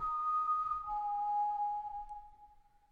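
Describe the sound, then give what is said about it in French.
A person whistles clearly, holding one pure note, then dropping to a lower one that lingers and slowly fades, like part of a melody. “J'ai jamais souffert leur bruit, car je sifflais fort, je sifflais comme un fou, sent mes sens très loin, très haut au-dessus de tout.”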